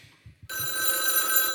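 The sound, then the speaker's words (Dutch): A telephone rings for an incoming call from Frank Kolen, with a steady, high electronic trill that starts abruptly after a moment of low, quiet sounds and continues loudly to the end. “Ja, je hoort het. Frank belt.”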